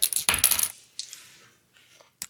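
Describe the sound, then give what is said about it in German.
A die clatters and tumbles across a hard tabletop in a quick burst of bright rattling clicks, then settles with a few softer taps and one last sharp knock. “Ich, glaube, ich weiß auch nicht, mein Würfel ist zinkt, aber nicht.”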